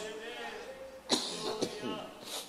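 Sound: cough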